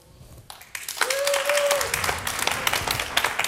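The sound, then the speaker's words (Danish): An audience at an upper secondary school breaks into applause as an indicative vote on a word, dense clapping building quickly and holding steady, with a brief whistle cutting through near the start. “Øh, hvis vi nu tog forsyningskæder med over grænsen, hvor stor en applaus ville det få?”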